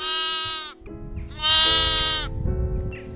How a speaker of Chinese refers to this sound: 可一看就傻眼了，原来这只动物不是猫，而是胡子不少的山羊。